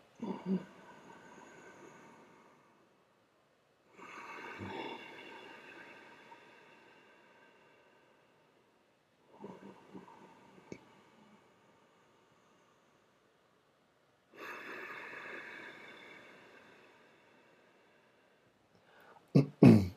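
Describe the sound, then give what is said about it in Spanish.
Slow, rasping breaths drawn through a narrowed throat as a breathing technique, producing a soft ocean-like hiss. There are four long inhales and exhales separated by short silences, with a few clicks at the end. “Puntualmente, lo que sucede es que cuando empiezas a respirar así, literal se empieza a emular el sonido de eh, el océano.”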